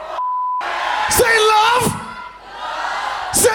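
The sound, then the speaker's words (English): A short steady beep, then a live audience at a band's concert erupts in loud cheering, with sharp shouts and yells rising above the dense roar of the crowd. “You having a good time out there tonight? Let me hear you say, fuck yeah!”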